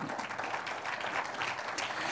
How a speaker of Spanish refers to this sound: ¿Cuántos dicen gloria a Dios? Amén, un aplauso al Señor.